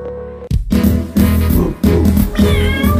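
Drawn-out cat meows rise and fall over a dense, steady musical backing, loud, with a brief cut near the start before the sound swells again.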